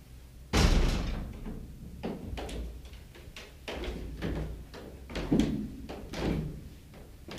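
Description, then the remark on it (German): A door bangs open with a loud thud, followed by several lighter knocks and rattling clatters over the next few seconds, with no voices. “Als die Geißlein sahen, dass sie weiß war, glaubten sie, alles wäre wahr, was er sagte, und machten die Türe auf.”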